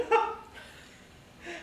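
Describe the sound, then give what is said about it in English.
A single quick, voiced sneeze bursts out at the start, followed by quieter breathy noises and a soft exhale near the end. No one speaks. “Bless you.”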